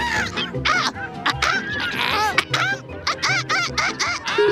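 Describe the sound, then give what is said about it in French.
A noisy flock of seagulls at the beach calls over and over, harsh squawks overlapping closely from several birds at once and staying loud and busy throughout. “Nicole et moi sommes partis à la plage pour communier avec les mouettes.”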